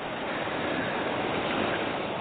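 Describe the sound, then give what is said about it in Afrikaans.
Steady, rushing sea water washes in continuously, a dense wash of surf noise at moderate volume with no distinct breaks between waves and no voices. “Al wat hy vir my gelos het is die see.”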